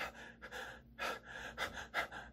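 Quick, rhythmic panting breaths in a song recording, roughly five or six airy gasps in a steady pattern, fairly quiet, with no talking.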